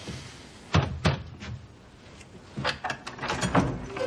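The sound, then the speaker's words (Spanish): A door is opened by a guard, with a couple of sharp knocking clunks from the latch and handle followed by a series of softer rattles and creaks as it moves, no voices present. “Un guardia abre.”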